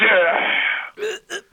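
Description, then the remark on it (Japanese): A voice imitates a wrestler spraying poison mist, made of pufferfish ovary mixed with green food colouring, at an announcer's face in a wrestling ring: a long hissing blast of breath lasting most of a second, followed by two short voiced bursts. Loud, with no other sounds around it. “顔面めがけて一気に毒霧を吹きか吹きかけました。”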